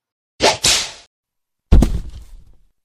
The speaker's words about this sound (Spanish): Pero al volver a su ciudad, el amo de estos esclavos les castigó físicamente, dándole 500 latigazos a la Kumi y a Martina 300.